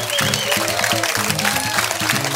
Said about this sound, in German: Ganz, ganz stark! Mit so viel Applaus habe ich natürlich überhaupt nicht gerechnet. Und so spontan, vielen, vielen Dank.